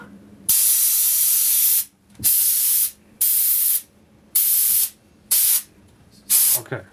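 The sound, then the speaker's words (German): A fire extinguisher filled with compressed air instead of Halon, held upright 1 to 1.5 metres from a fire, blasts in six loud, hissing bursts, the first the longest, each cut off sharply, with short quiet gaps and faint low noise between. “Genau, unsere Feuerlöschen sind hier eben mit Druckluft gefüllt, nicht mit echtem Halon bzw.”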